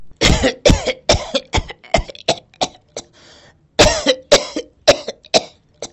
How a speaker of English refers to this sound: She's groaning in pain, coughing heavily, slowly but surely giving up on life unless a miracle happens.